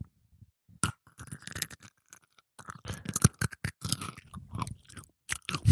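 Loud, close-up chewing with wet crunching and smacking mouth sounds, irregular bites and pauses, very near the microphone, with no talking.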